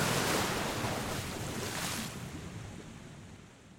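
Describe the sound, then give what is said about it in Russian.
A steady, dense rush of water from gushing springs and breaking waves fills the scene, loud at first and gradually easing off toward the end, with no voices present. “Когда стих шум родников, на месте города были лишь волны.”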